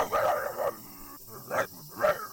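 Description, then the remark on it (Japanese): A voice imitates a big white dog barking aggressively while chasing and biting a man: a long growling bark followed by two sharper, shorter barks, loud, with brief gaps between them. “白い大きな犬は、そのおじさんに向かって、吠えては噛みつき、噛みついては吠えて追い回し、いつの間にか姿が見えなくなっていた。”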